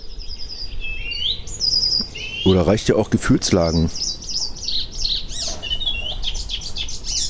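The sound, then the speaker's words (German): An icterine warbler sings a fast, varied stream of high chirps, whistles and rattling phrases that runs the whole time, with a man briefly speaking over it midway. “Mein Vogel der Woche, der Gelbspötter.”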